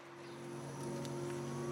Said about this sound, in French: est parti avec euh, sa voiture électrique et nous, on connaît tout sur ce service d'autopartage Move Go ici à Brette-les-Pins